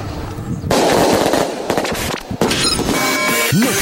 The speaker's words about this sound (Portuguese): Vamos pra soltar um foguete. Né? um foguete agora.